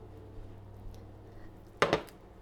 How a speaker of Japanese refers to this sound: 今電子レンジから取り出しました卵が固まってねいい感じですこれをこう今1枚のお皿にただ広げただけなんですけど